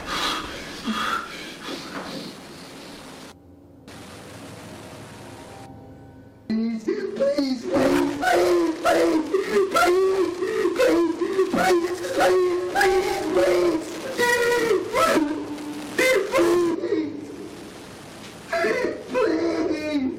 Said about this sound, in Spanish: Wow. Se ve una persona llorando, tiene como una bolsa en la cabeza.